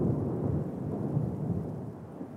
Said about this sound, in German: Wie langweilig wäre dagegen ein echtes Gewitter ohne die passende musikalische Unterstützung.